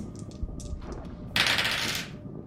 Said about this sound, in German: Du würfelst mir bitte einmal auf Stärke.